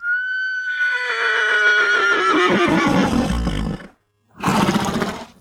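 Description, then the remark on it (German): A loud horse neigh: a high whinny that wavers and descends into snorting rumbles, a brief pause, then a second burst of harsh whinnying. No speech. “Später kamen die passenden Pferde dazu.”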